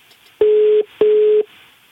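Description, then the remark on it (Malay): A telephone ringing tone over a phone line as a call is placed to someone's mother: two short, steady electronic beeps in quick succession, fairly loud and narrow-band, with faint line hiss between and after them. “Boleh kita telefon uh, mak dia sebab dia bagi nombor telefon nombor mak.”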